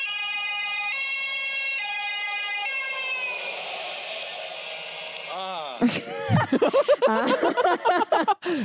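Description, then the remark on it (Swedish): An emergency vehicle siren sounds a steady alternating two-tone wail for a few seconds, then fades away before loud voices burst in talking and laughing. “Uttrycksfordon nummer ett.”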